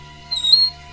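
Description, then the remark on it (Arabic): A door gives a single short, high-pitched creak lasting about a third of a second, fairly clear over a low steady background hum. “مرة تانية صحيت من النوم على صوت صرير الباب بس المرة دي كان مستمر ومش بيقف خالص”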